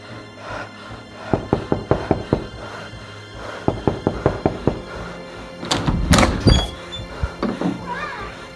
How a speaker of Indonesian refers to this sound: Saat sampai, rumah itu dalam keadaan tertutup. Maka diketuklah pintu itu.